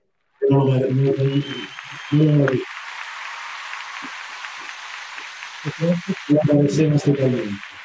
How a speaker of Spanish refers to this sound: Mira, vamos a meter aplausitos porque nos acaba muy bien.